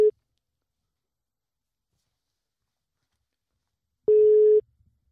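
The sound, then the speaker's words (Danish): A telephone ringback tone on an outgoing call placed during a Danish radio broadcast: a steady mid-pitched beep fades out at the start, then after about four seconds of silence a second half-second beep sounds, clear. “Så lad os prøve at ringe til, øh, til”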